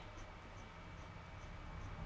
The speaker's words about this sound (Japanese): G ペンこれマジ一定の線引けなくないかこれ引ける人はマジすごいよね